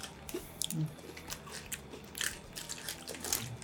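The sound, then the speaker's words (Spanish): Biting and chewing of a crunchy caramel snack from a small bag, with repeated crisp crunches and moist mouth sounds in an irregular rhythm. Fairly quiet, with no talking. “Está muy bueno el Este es de caramelo, ¿eh?”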